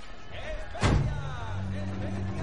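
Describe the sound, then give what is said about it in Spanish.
A metal door to the street bangs shut with one heavy, resonant clunk, followed by a steady low rumble and faint background noise. “Salen a la calle por la puerta metálica.”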